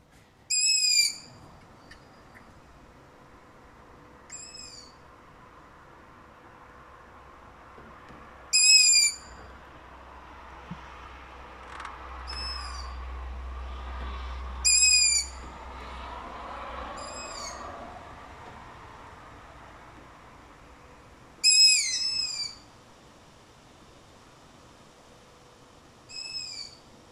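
High, squeaky begging calls of long-eared owl chicks, recorded in Kotka at the end of August, repeated at irregular intervals, some loud and others fainter, over a quiet background with a low rumble in the middle stretch.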